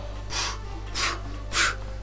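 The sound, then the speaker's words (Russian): Three forceful breaths blown out in an even rhythm, each a short airy whoosh, over a low steady hum, as someone puffs into a deflated balloon. No talking. “Но если Бог начнет туда дышать, оно”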